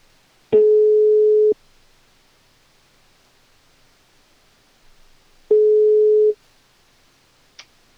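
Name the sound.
telephone call ringing tone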